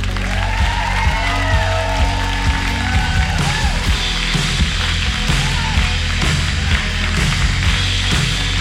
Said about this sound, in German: Und begrüßt mit einem herzlichen Applaus